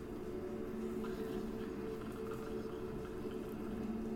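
Gentle water flows steadily from fountain spouts, a soft, continuous burble with faint trickling detail and no pauses, heard alone at a low, even level.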